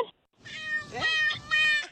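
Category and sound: animal, cat meowing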